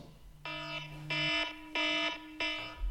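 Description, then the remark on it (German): Four loud, evenly spaced electronic alarm beeps signalling that a discussion question is over, each a harmonically rich buzzing tone lasting about a third of a second, repeating in a steady rhythm with short gaps between them. “Und jetzt muss ich nur noch irgendwie den richtigen Alarm.”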